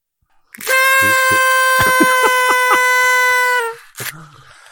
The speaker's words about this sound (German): das war auf jeden Fall die das, längste, ja. die längste Tröte in unserer Podcast-Historie.